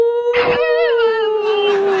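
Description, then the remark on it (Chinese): A single long dog-like howl, given as the envious howl of single people at newlyweds kissing through face masks, holds a steady mid pitch for about two seconds, its overtones wavering slightly, with a brief breathy burst near the start. “大家领完证还会隔着口罩亲吻，引来单身狗羡慕的嚎叫。”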